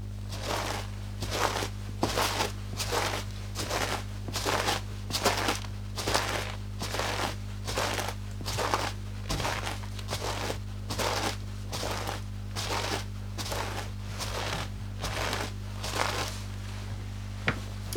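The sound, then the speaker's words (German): Foley footsteps: steady crunching standard gravel steps layered with a second track of cornstarch giving a squeaky, snow-like crunch, a regular walking rhythm of about twenty steps, fairly loud over a constant low hum, no talking. “also einmal hier äh, so Standard-Kiesschritte. Und dazu kommt dann in der zweiten Ebene noch ein, was ist das, Speisestärke so ein Schneeknarzen, um die mhm.”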